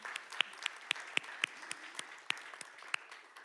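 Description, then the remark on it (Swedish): A small group applauds girls of high-school age who attended a weekend camp, with sharp individual claps standing out in a steady, fairly quick rhythm over a softer bed of clapping. No voices are heard. “En applåd kan de väl få, tycker jag.”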